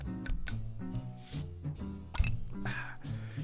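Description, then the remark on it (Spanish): A bottle is opened, with light glassy clinks and handling noises followed by a single sharp pop or snap, over a low steady background hum. “Por lo mismo, yo procederé a destapar, con permiso, si me disculpan.”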